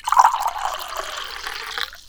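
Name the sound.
water being poured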